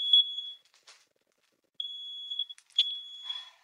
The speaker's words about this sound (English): So this grill, the way it works is it has a little, it's kind of like a little oven. So I close the oven door, then turn the dial. Really? Okay. There's no need for the smoke alarm to go off.